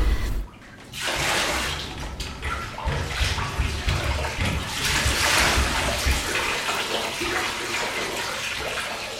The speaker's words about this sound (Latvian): Performance marketī norisinājās manas personāla izstādes marketīta atklāšanā, Kalnciem kvartāla galerijā, un tajā es divas stundas no vietas mazgāju galvu remdenā ūdenī, pleķa vannā.